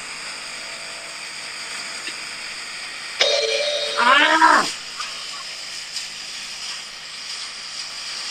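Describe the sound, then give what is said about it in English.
A wood chipper runs with a steady, noisy drone, then surges into a loud, whining, pitch-sweeping grind for about a second and a half before settling back. A person briefly exclaims. “Sounds like a lightsaber, but it's supposed to be a wood chipper.”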